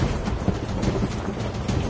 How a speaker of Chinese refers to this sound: 一道道之字形的闪电从空中劈向了水面和四周的矿，仿佛一条条耀眼的巨龙。可怕的雷声响彻天空。